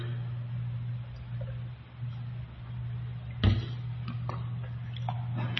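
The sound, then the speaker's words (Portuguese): A clock ticks with sharp clicks, one noticeably louder than the rest, over a steady low electrical hum. No one speaks. “seja bem com esse relógio aí.”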